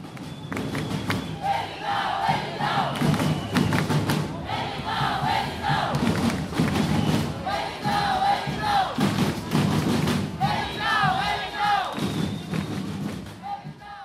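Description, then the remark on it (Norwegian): A large crowd on a protest march several kilometres long chants in rhythmic bursts over steady, thudding drumbeats, loud, with the repeated chant rising and falling. “Man blir nesten berusa av kampstemninga denne demonstrasjonen gir.”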